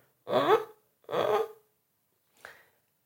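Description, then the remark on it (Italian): A voice makes whimpering, creaky crying sounds, the vocal 'cry' tone used in singing technique: two moderately loud half-second whines, then a shorter, fainter one after a pause, with no talking. “un tipo di emissione, un tipo di suono che da alcuni viene definito del bordo, da alcuni cry, da alcuni pianto, che poi è la traduzione esatta di cry, e è appunto questo suono un po' mugolante, un po' cigolante, che corrisponde più o meno a questo.”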